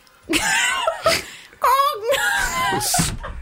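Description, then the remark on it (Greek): A voice imitates an annoying siren-like alarm clock ringtone with wavering, rising and falling wails in a few sustained bursts separated by short gaps, fairly loud. “Έχει έναν ήχο αδερφό μου, σαν σιρήνα.”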